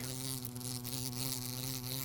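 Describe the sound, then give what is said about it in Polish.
A wasp buzzes steadily, a continuous droning hum that holds at an even loudness for a couple of seconds with no one speaking. “Osa akurat. To osa?”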